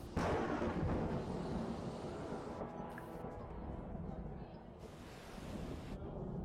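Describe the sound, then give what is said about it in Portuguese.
Heavy rain pours down in a steady, dense, loud roar, with gusty swells and a faint low rumble as a storm draws near. No one speaks. “Gente, isso é uma chuva.”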